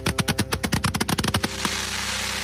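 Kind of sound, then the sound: impact, fireworks exploding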